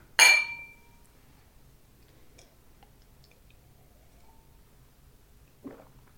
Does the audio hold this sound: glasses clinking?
yes